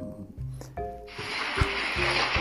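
A small moped engine hums steadily, then a soft, continuous rustle of the leaves of a small lemon tree rises and fills the background. No voices, and everything stays fairly quiet.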